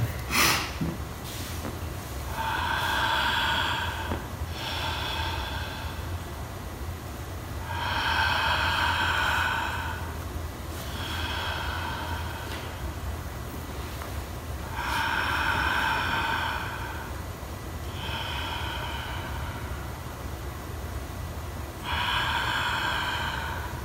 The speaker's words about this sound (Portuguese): Dá, então vamos lá. Estou aqui tá, respirando.